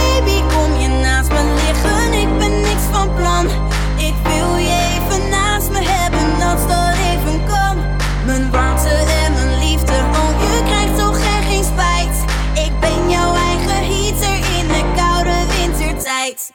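A pop song plays loud and close, with a full band, a steady bass line shifting between held notes, and a sung melody carried over the top throughout.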